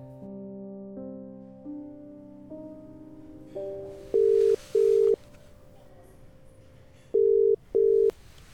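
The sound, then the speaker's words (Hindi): A phone ringback tone as a woman calls her friend after returning to the hostel: four pairs of short, steady mid-pitched beeps in a repeating double-ring pattern, loud against soft background music with shifting sustained notes and no talking. “hostel आते ही सबसे पहले वो आशना के रूम में जाती है पर आशना वहां नहीं होती तो अलीशा उसे कॉल करती है”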